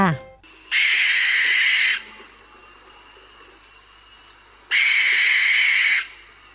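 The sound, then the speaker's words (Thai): An American barn owl gives two long, harsh, hissing screeches, each lasting over a second, separated by a few seconds of quiet background noise. The calls are loud. “ก็ได้ฝากเสียงนกแสกจากที่ต่างๆ มาให้เราได้ฟังกันค่ะ เริ่มจากเสียงนกแสกจากอเมริกา”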